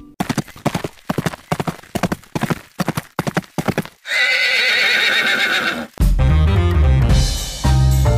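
Horse hooves clip-clop in a steady rhythm for several seconds, then a loud, drawn-out neigh rings out before upbeat music kicks in.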